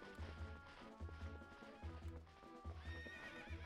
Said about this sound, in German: Warum rennst du einfach los, Epona? Dummes Pferd.